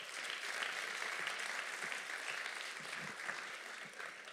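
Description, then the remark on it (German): A sustained round of applause from a church audience, dense steady clapping filling the whole stretch at an even level with no voices over it. “Gibt ihr auch mal einen ganz großen Applaus.”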